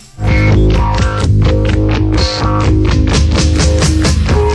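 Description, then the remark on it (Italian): An instrumental passage from a band's 1981 demo recording plays loudly and steadily, with heavily effected, distorted synth or guitar tones over a low bass line and a regular driving beat, no voices. “Uno di questi provini è questo qua che ci sentiamo adesso.”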